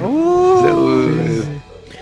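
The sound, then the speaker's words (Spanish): A single long, drawn-out howl with a steady tonal pitch that holds for over a second before sliding down and fading, fairly loud. “Que se oye, güey, un perro. Sí. es un lobo, güey, laullido.”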